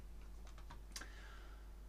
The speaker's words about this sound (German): Wir klicken hier mal auf Play.